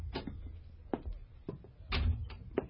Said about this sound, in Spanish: Fue cerca de las cuatro de la tarde cuando se abrió la puerta.